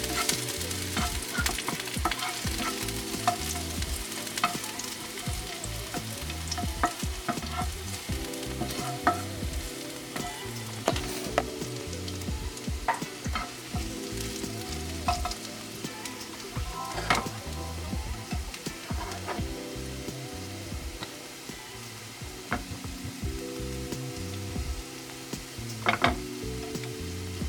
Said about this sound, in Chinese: 好，那我们现在呢就把蒜头给丢进去。好，那蒜头呢，我们要炒成蒜片，然后我们等下会撒在。这个骰子牛上面，然后它吃起来就会哇，有那个蒜头的香味，很赞。